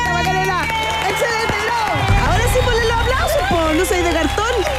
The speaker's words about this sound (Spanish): Más fuerte el aplauso.